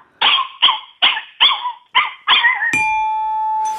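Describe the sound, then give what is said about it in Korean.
A person imitates a yellow country dog (nureongi) barking, with six loud, evenly spaced barks in quick succession, followed by a steady ringing tone. “누렁이, 시골에 있는 이제 네. 개죠, 개.”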